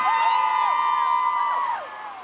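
A concert crowd cheering and screaming during the encore of a final tour show at Madison Square Garden in New York, a dense wall of high-pitched voices with shrieks rising and falling over a steady roar, holding loud for about two seconds before easing off slightly.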